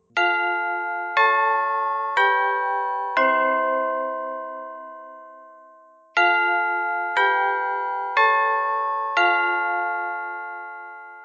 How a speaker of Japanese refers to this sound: おや、鐘が鳴ったようですね。では、今日の授業はこれで終わりにします。